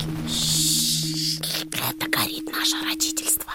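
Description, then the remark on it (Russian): A burning match: a steady airy hiss at first, then a run of irregular soft crackles and sputters as the flame flickers and burns down, over a faint low hum. “Вы слышите звук этой спички?”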